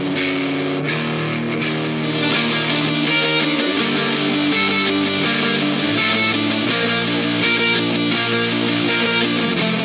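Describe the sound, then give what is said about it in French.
A heavily distorted electric guitar plays thick, sustained chords that shift every second or so, loud, with a bright, buzzing fuzz and no voices. It was recorded in a car with a Blue Yeti microphone placed in front of a tiny battery-powered cube amp, with distortion added by a plugin. “Le son brut passe ensuite par un plugin pour rajouter de la distorsion.”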